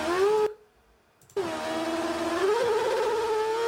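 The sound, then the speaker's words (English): A race car engine whines loudly with a buzzing, harmonic tone, cuts out briefly, then returns and climbs in pitch as the revs rise during wheel spin in the wet. “Do you hear that wheel spin? When the car goes, whoa, it goes up in revs.”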